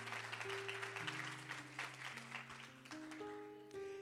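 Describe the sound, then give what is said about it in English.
A church audience gives the Lord a hand clap during a sermon: a dense, steady wash of many overlapping claps lasting several seconds, with sustained organ or keyboard chords holding underneath and shifting pitch. “Come on, give the Lord a hand clap if, if God is speaking to you.”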